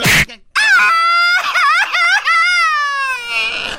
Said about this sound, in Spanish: ¡Viva México! Él no está gritando un grito mexicano, él está llorando. Ah, ¿para qué lloras?